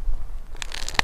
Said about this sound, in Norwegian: Lyden du hører, er forresten av bukkens hode, som er på vei av.